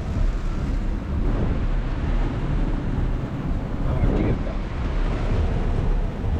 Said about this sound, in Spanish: Como llueve, increíble. Una lluvia fuerte, pero aquí, allá, no. Primero, está lloviendo un sitio y el otro lado está seco.